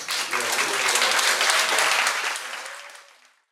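An audience applauds steadily, a dense wash of many hands clapping that holds strong for about two and a half seconds, then fades out gradually toward silence.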